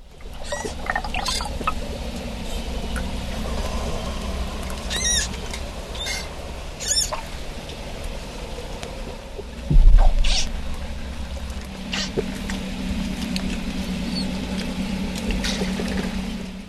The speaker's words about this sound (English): Here is the answer. The sound you just heard was a manatee.